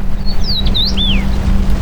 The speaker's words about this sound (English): Somehow, hundreds of miles away from any shore, through the harsh winds, she hears a small chirp.